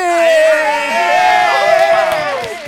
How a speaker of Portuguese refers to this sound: Começando por ele, o mito, o Mito, considerado atualmente o melhor e mais famoso vendedor televisivo do Brasil, vendedor do Time, palestrante, fundador da máquina de vendas, uma salva de palmas para ele, Ciro Bottini!